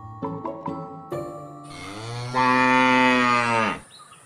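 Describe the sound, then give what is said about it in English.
A few short bell-like clanks, then a cow named Blossom, on a farm in Gloucestershire, lets out a long, loud moo that swells and holds before cutting off, with no talking. “Pride of place on the wall of St George's Medical School in South London is a cowhide, and that cow was named Blossom.”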